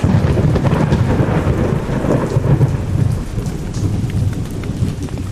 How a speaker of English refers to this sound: I hope the rain lets up soon, though. It's freezing.